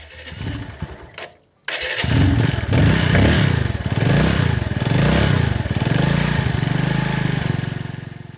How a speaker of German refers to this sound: Ich finde ein sogenanntes Boda Boda, eine kleine 150 Kubik Maschine, die in Kenia oft als Motorradtaxi genutzt wird.